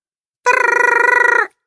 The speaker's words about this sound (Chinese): 一阵急促的电话铃声把他惊醒了